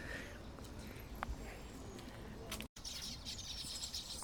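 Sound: birds chirping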